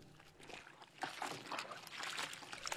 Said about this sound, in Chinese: 搓洗衣服的声音从寝室里传了出来，寝室的门被推开了一条缝，那声音更响了